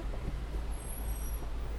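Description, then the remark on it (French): A 4x4 vehicle's steady, heavy rumble from inside the cabin as it drives over rough ground along a river, with faint knocks and a brief high squeal partway through; no one speaks. “Ah bah, je pense que vous entendez bien le bruit que la voiture fait.”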